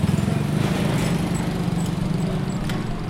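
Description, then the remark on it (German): Trainee women mechanics arrive early in the morning at a training centre yard in Ouagadougou, Burkina Faso, on mopeds and bicycles: a steady, loud, rattling moped engine putters without pause, with a low buzzing drone and a few faint high bicycle squeaks over it. No one speaks. “Auf knatternden Mopeds und quietschenden Fahrrädern kommen die angehenden Mechanikerinnen in ihren blauen Arbeitsanzügen am frühen Morgen auf den Hof gefahren.”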